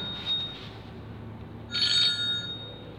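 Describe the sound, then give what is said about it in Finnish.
The speaker's own mobile phone rings with a bright electronic tone, a soft chirp early on and then a louder burst near the end, over a low background hum. “Anteeksi, puhelimeni soi.”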